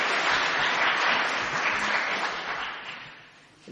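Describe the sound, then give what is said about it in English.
A crowd claps steadily in a dense wash of applause that holds strong for a few seconds, then begins to thin and fade toward the end, giving another round of applause to four candidates after their testimonies. “Can we just give our four candidates another round of applause?”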